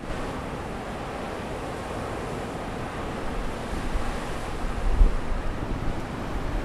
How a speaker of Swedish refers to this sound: Det är grått och höstruskigt, blåser friskt från väst-nordväst och regnet hänger i luften.